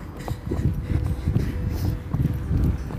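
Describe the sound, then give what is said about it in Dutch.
Quick, rhythmic footfalls thud steadily throughout, like someone running on a hard surface, with a dull muffled quality and no voices. “Maar dan nog is er niemand die raar opkijkt dat ik aan het rennen ben.”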